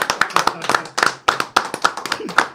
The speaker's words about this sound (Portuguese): Eu quero que vocês recebam com muito carinho. Eu vou pedir para eles mesmos se auto-aplaudirem, porque eles são humildes.